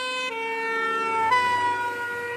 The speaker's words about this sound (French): Une voiture de pompiers s'approche de nous. Et sa sirène nous semble de plus en plus aiguë.